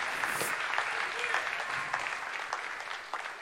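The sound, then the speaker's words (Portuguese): An audience at an evening church service applauds the name of the Lord steadily, a dense wash of many hands clapping at a moderate, even level throughout, with no voices standing out. “Alguém pode aplaudir o nome do Senhor esta noite.”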